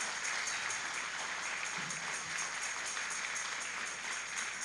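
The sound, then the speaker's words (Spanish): An audience claps steadily in worship, clapping loudly to the Lord: a dense wash of many hands blending into continuous, even applause with no one speaking over it. “dale fuerte a las palmas al Señor, porque Él es, bueno.”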